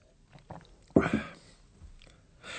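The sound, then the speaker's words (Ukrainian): A single hearty gulp of beer as a man drinks during a conversation, fairly loud, surrounded by quieter wet mouth and swallowing noises before and after. “Отже, після того, як Андреас вибачився, доктор Тюрман спочатку смачно ковтнув пива, а потім знову звернувся до Андреаса.”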